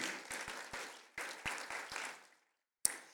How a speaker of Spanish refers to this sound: Dele un aplauso al Señor y decimos amén.